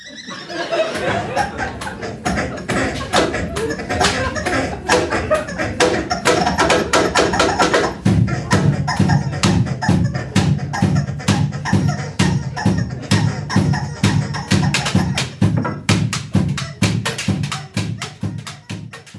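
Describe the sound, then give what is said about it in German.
Busy, loud percussion of sticks clattering on pots and kettles, a fast rhythmic stream of sharp metallic hits that settles into a heavier, steady pounding beat partway through. “Sie spielen auf Töpfe, Kessel, verschiedene Stöcke, Schwingbläser und überraschenderweise sogar mit Gummihühnern.”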